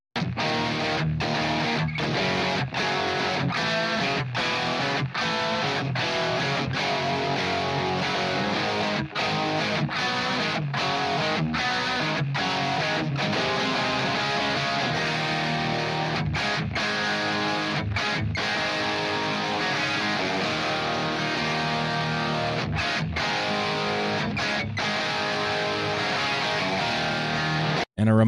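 A heavy, distorted rhythm guitar riff from a song's pre-chorus plays loud on its own as an isolated rhythm guitar track, a thick wall of sound broken by short, punchy rhythmic stops throughout.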